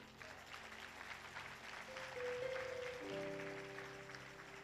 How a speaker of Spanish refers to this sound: Yo creo que todos se merecen un aplauso por eso.